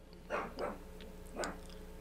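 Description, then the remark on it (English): A dog barks three times, two quick barks followed by a single one after a short pause, moderately loud against a steady low background hum, with no one talking. “I don't know what he's barking at”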